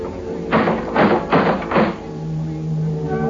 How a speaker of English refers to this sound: I got to the front door and I knocked.